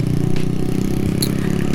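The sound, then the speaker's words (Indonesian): A heavy vehicle engine rumbles steadily and loudly, a deep low drone with faint clatter on top, like a bus running on the road; two buses, apparently carrying people going on a pilgrimage, on a quiet road. “ini jalannya jalanannya gak rame karena ada orang mau ziarah kayaknya sih mau ziarah ada bis dua gitu”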